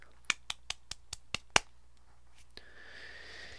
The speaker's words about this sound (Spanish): eres un campeón de la vida, así que te voy a dar un aplauso, pero chiquito porque se satura.